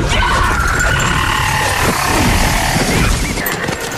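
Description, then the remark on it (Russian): A voice imitates the frantic, shrill warrior battle cry of Xena from the TV series Xena: Warrior Princess, a loud, piercing wail held steadily for about four seconds, harsh with no pauses. “Мне очень хотелось тоже научиться, как она делает сальто назад с таким бешеным криком, если помните”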